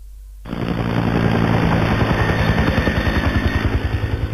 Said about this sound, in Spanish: Un helicóptero.